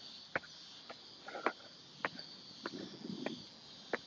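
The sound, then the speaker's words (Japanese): A steady, high-pitched buzz of many cicadas drones on without a break, fairly quiet, with a few sharp clicks and soft rustling scattered over it and no one speaking. “日本のセミとは違うのかもしれない。鳴き方が。”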